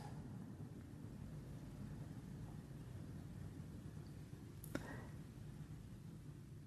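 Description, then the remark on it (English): A steady, low rumble of traffic heard from inside a building fills the background throughout, broken once by a brief sharp click partway through. No one speaks. “In this building, sometimes we hear traffic.”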